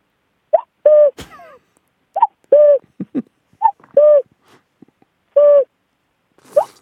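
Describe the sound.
A person imitates a cuckoo by blowing into cupped hands, giving hollow two-note hoots in a steady repeating rhythm, four loud calls with brief pauses between.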